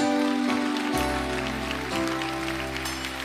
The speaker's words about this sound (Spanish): Eso ahí es bueno ponerle un aplauso por si acaso. Así que vamos a ponerle un aplauso.